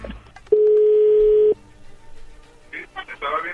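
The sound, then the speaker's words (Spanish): A telephone call being dialed: one loud, steady, low-pitched ringing tone lasting about a second, then a lull before voices begin talking. “Bueno, ya se está marcando, no haga ruido, por favor.”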